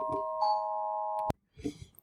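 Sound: doorbell ringing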